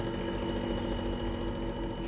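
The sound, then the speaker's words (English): A small electric refrigerator motor of an inventor's original design runs with a steady, droning hum, constant in level throughout, with a faint mechanical buzz and no pauses or talking. “It's a refrigerator motor, my original design.”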